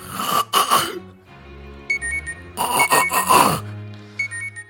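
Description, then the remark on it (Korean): An alarm clock rings again after being snoozed, with short, repeated bursts of high electronic beeping, broken up by loud groans and throat-clearing noises from someone waking up. “아우 여러 번 눌러놔서 괜찮아 잠깐만 아우 10분 후에 10분 후에 하는 걸로 누르자”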